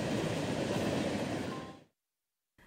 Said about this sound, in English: Until then, the most frequently heard locomotive sights and sounds in this part of California will be from the many slow moving freight trains traveling through the valley.